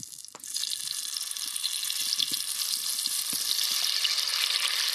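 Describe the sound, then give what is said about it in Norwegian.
A steady, loud sizzle of Brussels sprouts being lowered into a hot pot and frying in hot fat, a dense crackling hiss that swells slightly as the food settles, with a few soft clinks and pops underneath. “nå senker jeg, nå senker jeg, senker jeg rosenkålen ned i”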